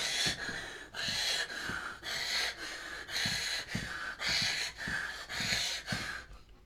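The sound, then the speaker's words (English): A voice imitates the heavy, gasping breathing of boxer Roy Jones Jr., winded in his fight against Mike Tyson: about nine loud, rapid, rhythmic breaths in quick succession, breathy, with no talking. “sucking in wind, gassing.”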